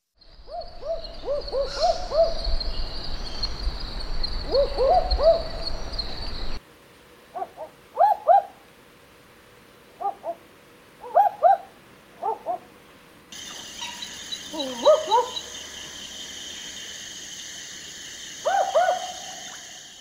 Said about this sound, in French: tête très ronde, de très grands yeux, qui leur donne souvent un air un, peu ébahi euh, de chouette mal réveillée. Et donc la ninox aboyeuse dedans a des cris qui vont plutôt bien en fait avec cette tête euh, surprise et mal réveillée éventuellement.